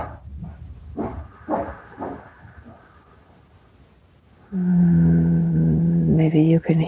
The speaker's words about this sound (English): hear my dog that just barked in the background. Life is going on around me as I speak.